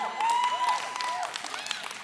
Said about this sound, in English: So parents are excited. I want to see by just an applause or eruption or what may happen. Children, who's are you excited about the end of another school year, kids? Everybody?